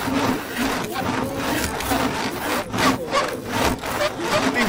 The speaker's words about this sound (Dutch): In het trekzagen gaat het om de trek door het verse hout.